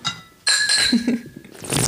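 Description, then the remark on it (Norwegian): Glasses clink once in a toast, a bright, high ringing tone that hangs in the air for about a second before fading, followed by soft rustling. “Vi kan skåle, gjerne.”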